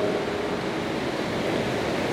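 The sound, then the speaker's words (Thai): Heavy rain falls in a steady, dense hiss that fills the whole clip at an even, fairly loud level, with no pauses, drips or voices standing out, heard during a class being streamed live online. “ตอนนี้ที่เรานั่งเรียนกันอยู่นะครับฝนตกหนักพอสมควร ปกติแล้วหนักแบบนี้เนี่ยน้ำท่วมขังหรือเปล่า”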